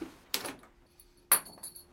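Two bright metallic clinks about a second apart, each a sharp clatter with a brief jingling ring, like a small metal wheelchair part hitting the floor. No one speaks.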